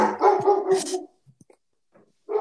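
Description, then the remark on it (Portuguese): A pet dog named Loki barks excitedly in a quick burst of loud yips for about a second, then goes quiet apart from a few faint ticks before another short bark at the end. “Deu para escutar? Gente, não Acontece. é o Loki do Thor. Não, é o, é o meu Loki, que eles se empolgou agora.”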